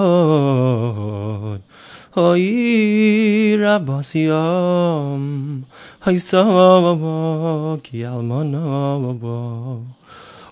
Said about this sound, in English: It's the sad lamentations that we sing about the destruction of the temple that happened on Tisha B'Av on the ninth day of Av. And we sing it to a tune, it sounds like this.